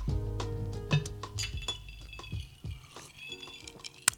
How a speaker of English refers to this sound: Okay, let's cheers. Cheers.